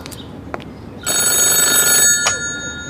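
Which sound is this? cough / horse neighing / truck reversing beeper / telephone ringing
telephone ringing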